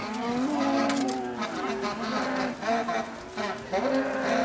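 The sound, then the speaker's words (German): Several cows moo over and over, their low, drawn-out calls overlapping into a continuous bellowing chorus with no pause between calls. “Wir sind Spielball der Öl- und Gasindustrie unzählige Kühe und ihre Verbündeten.”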